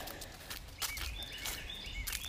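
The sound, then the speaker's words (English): Faint birds chirp in the background with short, high, repeated calls, over low ambient rumble and a few soft scuffs, with no one talking. “We've got some birds chirping.”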